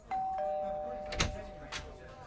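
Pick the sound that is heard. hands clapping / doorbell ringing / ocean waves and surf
doorbell ringing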